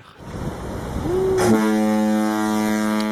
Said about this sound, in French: Ah c'est ça une notif.